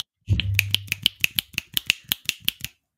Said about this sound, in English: You're supposed to clap like this by snapping you your fingers.